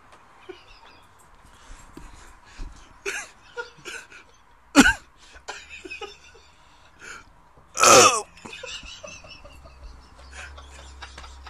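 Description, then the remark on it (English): A loud, raspy burp bursts out after a sharp, brief gulp-like sound, with quieter throaty clicks and breaths scattered around them and no talking. “we got a burp coming Ooh.”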